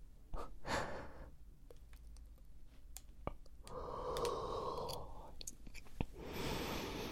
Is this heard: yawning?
yes